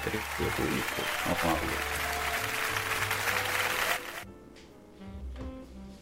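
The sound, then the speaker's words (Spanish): Dense, steady applause for the owner of the radio station fills about four seconds, then cuts off abruptly, with voices murmuring underneath and carrying on quietly after the clapping stops. “Ahí estaban los aplausos para el señor dueño de la radio.”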